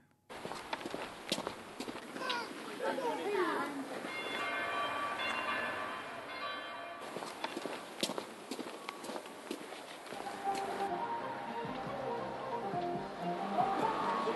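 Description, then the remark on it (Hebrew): Busy street ambience on Yehuda HaYamit Street in Jaffa, a steady dense wash of footsteps, clattering and mechanical rumble, with passing tonal whines and scattered sharp knocks, moderately loud and continuous throughout. “מה לומר לרחוב הזה? כל כך הרבה צלילים יש כאן.”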